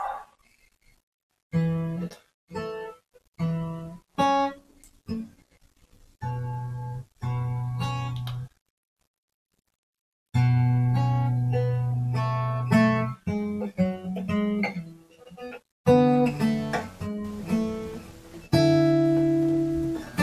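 Solo fingerstyle acoustic guitar practice of a song intro: plucked notes and ringing chords in halting bursts, stopping and restarting with short silent gaps. No one speaks.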